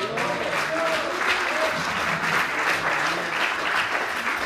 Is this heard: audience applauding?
yes